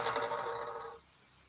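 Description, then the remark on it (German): A ten-sided die rolls and clatters across a hard tabletop for about a second with a bright, rattling tumble, then stops abruptly, landing on eight, into near silence. No voices. “Explo nee, ist ein Zehnerwürfel.”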